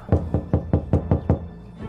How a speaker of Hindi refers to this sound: तभी अजय के रूम का किसी ने दरवाज़ा खटखटाया